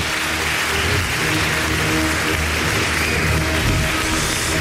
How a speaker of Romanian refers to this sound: Aplauze din partea noastră